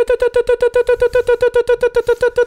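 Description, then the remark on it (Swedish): A voice imitates a fire-alarm beep: a rapid, steady string of short, nasal, high-pitched tones, about five per second, loud, with no other sounds around it. “är som ett brandlarm.”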